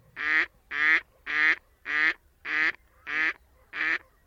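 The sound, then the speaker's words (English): A female gadwall duck gives a series of seven harsh, nasal quacks in a steady rhythm, each about half a second apart, clear with no other sounds. “Yeah, and so then here is the the female. It's going to sound a lot like a mallard hen, but maybe a bit more harsh.”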